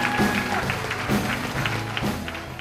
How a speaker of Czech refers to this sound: A teď je tady poslední vystupující dnešního večera, takže poprosím o velký potlesk a myslím, že ho není třeba nějak zvlášť představovat.